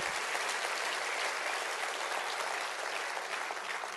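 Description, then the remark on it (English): A church audience applauds steadily on Resurrection Sunday for about four seconds, a dense wash of many hands clapping at once with no pauses, loud and even throughout, and no voices stand out. “I would like somebody that loves what's happening today in our world to clap your hands right now big.”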